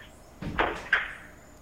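A cupboard door in the room next to a studio opens and bangs shut as someone checks the cupboard, two quick wooden knocks a moment apart over a quiet hum.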